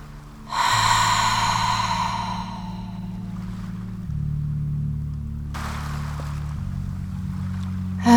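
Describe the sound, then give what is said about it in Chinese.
A deep, audible exhale during a relaxation breathing exercise to release bodily tension and anxiety: a long breathy whoosh that fades over about two seconds, then a second, shorter breath a few seconds later, all over a steady low musical drone. “比较大的吐气，把气息的声音发出来，并设下意念，把身体的紧绷与焦虑一起释放。”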